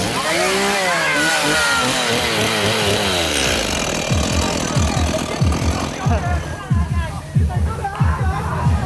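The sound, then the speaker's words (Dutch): A chainsaw engine revs and whines in rising and falling bursts, with a busy babble of voices and crowd noise mixed in throughout, at a haunted-house attraction in the English gardens of a park. “Kettingzagen, kettingen.”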